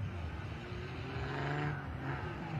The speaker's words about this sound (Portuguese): Funcionou o carro do gringo, aí está ele de novo. Tem algumas avarias na parte dianteira, mas eu acho que está mais reto.